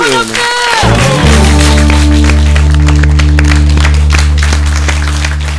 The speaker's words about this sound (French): Allez, on fait un tour d'applaudissements.